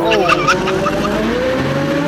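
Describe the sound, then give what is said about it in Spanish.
Tires screech sharply as a car that is being stolen revs and pulls away, a loud squeal at the start fading into a steady engine roar. “¡Se está robando el carro!”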